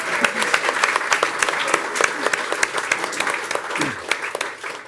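A burst of applause from a small group, dense rapid clapping that stays steady for several seconds, with a faint voice briefly audible underneath.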